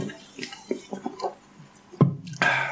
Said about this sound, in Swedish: Ja, det, det, låter, det mm. låter ju rätt i alla fall. Bubblor.